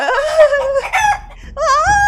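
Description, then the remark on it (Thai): A bantam hen clucks loudly, a few drawn-out, warbling calls with rising and falling pitch, a short pause before the last one, with no voices. “สุดท้ายแม่ไก่แจ้ก็ได้กลายเป็นอาหารอันโอชะของเจ้างูเหลือมไป”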